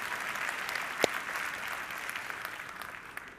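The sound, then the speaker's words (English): Steady applause from a sizable audience, clapping for a man about to turn 85, a dense wash of many hands clapping at once with one sharp, louder clap near the start, fading slightly toward the end. “Come on, that, that deserves a couple of claps.”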